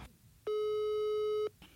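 A single steady telephone ringback tone of an outgoing call, about one second long and clear, with brief quiet before and after and no talking.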